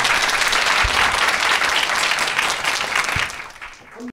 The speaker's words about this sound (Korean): 자, 그리고 헷갈리는 40대 B 씨에게도 박수 부탁드립니다.